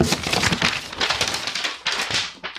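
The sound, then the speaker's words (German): Written-on sheets of paper being gathered up from beside a table, with crisp rustling and crinkling in several quick bursts and brief pauses between them; no one speaks. “Guck mal rechts neben den Tisch, das sind ja noch mehr Blätter, die du beschriftet hast.”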